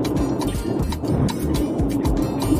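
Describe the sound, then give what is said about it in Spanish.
Loud, constant wind buffeting roars across a phone line, a heavy low rumble with gusty bursts and crackling distortion throughout, no clear voices coming through. “No, voy a Tremenda ventolera ahí.”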